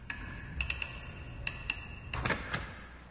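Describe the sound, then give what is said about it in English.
The combination lock dial of a bank's maximum-security walk-in vault clicks in a series of sharp, irregular metallic ticks, some in quick bursts, ending with a heavier clunk as the lock gives way. Fairly quiet, no voices. “The lock belongs to First National's maximum security walk in vault, but to three highly specialized bank robbers, no security seems to be maximum enough.”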